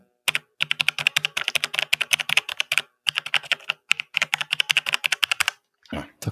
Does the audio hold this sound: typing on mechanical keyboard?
yes